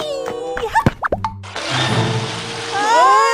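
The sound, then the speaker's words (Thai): A football drops into water during a game of football, with a few sharp, hollow plops and splashes, then floats away; a steady wash of churning, bubbling water swells louder toward the end. “ดูสิเนี่ยลูกบอลลอยน้ำไปไหนตอนไหนแล้วจะเอาอะไรเล่นกันล่ะเนี่ย”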